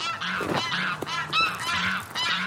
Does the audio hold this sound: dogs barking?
no